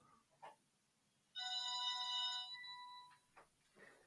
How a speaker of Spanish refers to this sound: Joder, me están llamando el teléfono. qué inoportunos.